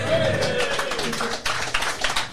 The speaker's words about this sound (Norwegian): Vi har en cupvinner fra start her. En liten applaus, eller?